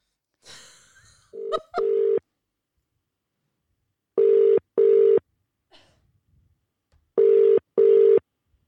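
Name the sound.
telephone dialing and ringing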